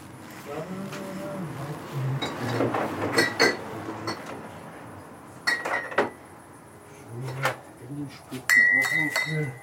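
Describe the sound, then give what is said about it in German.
Beer bottles and glasses clink and clatter repeatedly as non-alcoholic beer is served and people toast, with sharp bright taps in a few clusters, mixed with quiet talk and some background rustling. “Ich habe auch ein Bier bei alkoholfreies da, oder?”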